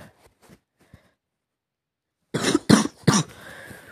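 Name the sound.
coughing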